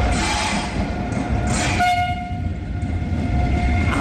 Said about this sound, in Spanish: Así suena uno de esos trenes, así suena un Talgo S106.